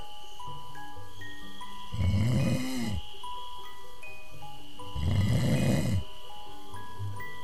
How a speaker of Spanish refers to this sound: se acurrucó dentro de la carpa y pronto estaba roncando.